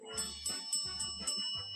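bell ringing repeatedly

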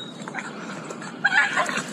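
dog whimpering and yipping

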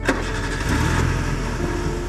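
car engine starting

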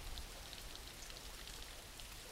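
rain falling

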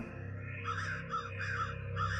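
crows cawing

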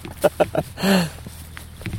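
donkey braying

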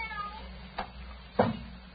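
cat meowing

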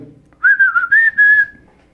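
person whistling

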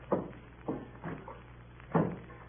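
door being closed

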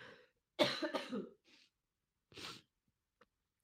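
coughing

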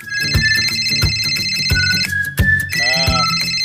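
cell phone ringtone

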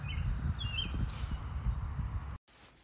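birds chirping outdoors

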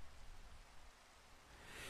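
rain falling

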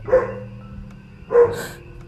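dog barking

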